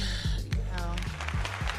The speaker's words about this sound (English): Oh, we got the red record button yeah, going. yeah, that's it. Make a clap,